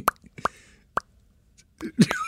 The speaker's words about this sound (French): On est vraiment en train d'essayer de faire du bruit de tapotage de légumes?